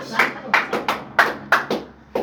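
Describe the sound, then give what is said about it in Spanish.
An audience at a Christian church service claps in loose unison, about eight sharp, echoing claps at an uneven, quickening pace, fairly loud against quiet surroundings. “Si le va a aplaudir, aplaudirle con más fuerzas, hermano.”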